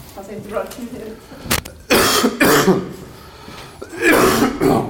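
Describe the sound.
A sudden coughing fit bursts out during an interview, in the middle of the first question: harsh, loud coughing in a few heavy clusters, with brief murmured talk in between.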